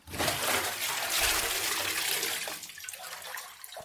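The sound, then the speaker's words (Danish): A loud rush of sloshing water as a person lowers their whole body into a full bathtub and water spills over, easing after a couple of seconds into scattered trickles and drips. “Hmm, der ryger mere vand ud, når jeg sætter mig ned på numsen. Hvad hvis jeg tager hele min krop ned i karret?”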